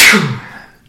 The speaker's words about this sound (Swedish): Oj, Prosit. ursäkta.